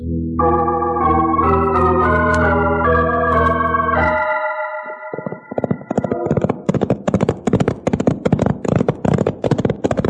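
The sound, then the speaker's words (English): A sustained musical chord fades out, then the hooves of horses clip-clop in a steady rhythm for several seconds, loud and even, with no talking. “come over here and put the horses away.”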